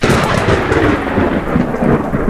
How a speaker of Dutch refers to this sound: Als het onweer vlak boven je hangt, heb je van die schelle, harde, venijnige klappen. Alsof alles om je heen uit elkaar klapt.